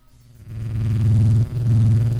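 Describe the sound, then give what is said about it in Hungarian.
A small funnel-shaped suction gadget, which runs when touched with a finger, purrs like a cat with a low, steady motorized hum. It starts up, runs smoothly, cuts out for a split second, then resumes. It sounds moderately loud, with no voices. “Ó, mint egy aranyos kis macska úgy dorombol.”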